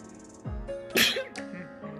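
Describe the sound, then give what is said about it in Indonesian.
A single sharp sneeze, a quick inhale followed by an explosive burst, with a short breathy tail afterward. “sorry iklan bentar bersin”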